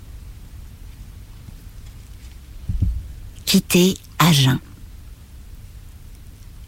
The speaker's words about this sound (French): 8 heures, Agen. Pluie sur des avenues que je ne connais pas dans une voiture que je ne conduis pas, métaphore trop évidente de la vie